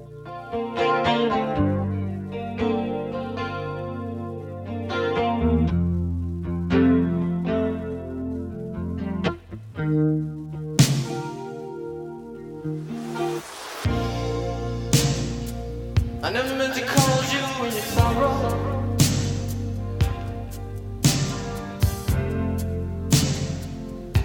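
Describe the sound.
A slow, world-famous pop song plays loudly, with chorus-drenched, distorted guitar chords ringing out over a steady pulse and a singing voice, the sustained notes swelling and fading between strums.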